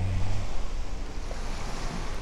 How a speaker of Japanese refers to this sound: 今日も波音バックにお届けしていますが